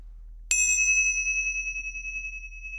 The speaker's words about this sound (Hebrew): אוקיי, okay, אז הנה, את מוכנה כבר עם המצילות. נכון.